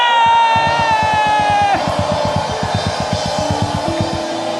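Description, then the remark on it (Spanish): A church audience at a Korean-Spanish service lets out a loud, sustained victory shout after a count of three, many voices yelling and whooping together at full strength for several seconds with a ragged, roaring texture. “Vamos a dar el grito de victoria.”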